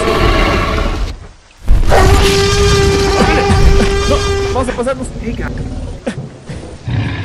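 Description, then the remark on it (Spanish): A huge, drawn-out roar of a 15-ton tyrannosaurus bellows for several seconds, loud and rasping with a wavering tonal cry, followed by rumbling thuds while people speak urgently over it. “Si no hay electricidad, el tiranosaurus puede romper la cerca, profesor.”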